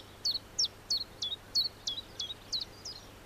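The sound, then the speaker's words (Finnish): Common chiffchaff song, from a small bird about ten centimetres long and under 10 grams, dark-legged and short-winged: a steady series of about nine short, high chirping notes, evenly spaced and alternating slightly in pitch, sounding alone against a faint low hum. “Tiltaltin tiputteleva ääni, tilttalt, talt, tilttalt, jää helposti mieleen.”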